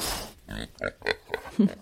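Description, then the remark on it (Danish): A truffle pig oinks and grunts in a quick run of about five short, snuffling bursts, fairly loud, with no other sounds around it. “Man skal derfor bruge en med en rigtig god snude. For eksempel en trøffelgris.”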